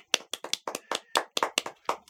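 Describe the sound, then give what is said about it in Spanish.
A short burst of hand clapping, about ten sharp claps in a quick, slightly uneven rhythm, like one or two people applauding on their own with no talking. “¡Eh! aplausos uh.”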